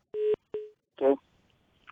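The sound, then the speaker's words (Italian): Two short, steady telephone beeps sound in quick succession as a call connects, clear, followed by a brief burst of a voice on the line. “Ultima telefonata, pronto chi è là?”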